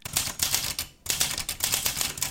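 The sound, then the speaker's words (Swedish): A mechanical typewriter, probably a Facit, clacks away in a quick, steady burst of keystrokes, with a brief pause near the middle before the rapid tapping resumes, clear with no voices. “skrivmaskin, förmodligen av märket Facit som gick i konkurs.”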